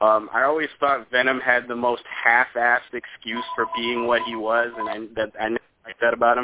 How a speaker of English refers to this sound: That was my phone. Sorry, guys.